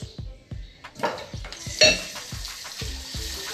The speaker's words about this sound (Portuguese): Estamos aqui, como eu disse, lavando louça e fazendo esse podcast.